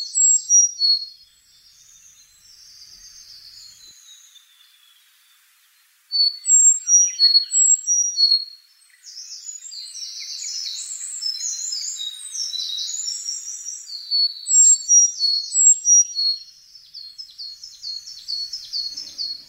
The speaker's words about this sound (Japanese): エゾムシクイはウグイスに近い仲間の鳥スズメより小さく頭から背中尾まで褐色胸からお腹が淡い褐色の地味な鳥です名前に北海道を意味する蝦夷がついていますが本州の高い山へ夏に渡ってきます